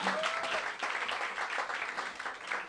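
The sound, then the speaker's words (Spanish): An audience applauds steadily, a dense wash of overlapping hand claps that stays loud and even throughout, with a brief tonal whistle or cheer near the start. “Un aplauso que ha vendido todo dos meses antes.”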